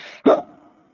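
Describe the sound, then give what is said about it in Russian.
A person imitates an animal: a brief breathy hiss, then a single loud, rough growl that bursts out and trails off within a fraction of a second. “Оно, у него оскалены зубы, оно, у него прочные руки, кулаки такие сжатые, либо вот прочные такие вот жесты, и оно способно рычать или шипеть. То есть оно способно делать вот это.”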